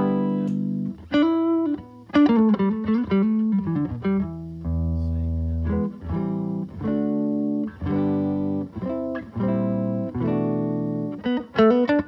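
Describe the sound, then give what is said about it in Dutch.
Clean electric guitar through an Amp One amp on its clean channel, set up a bit like a Fender, playing a string of plucked notes and chords with clear, bright harmonics, steady and fairly loud, with short pauses between phrases and no talking. “Kijk eens, als ik hem helemaal clean laat horen.”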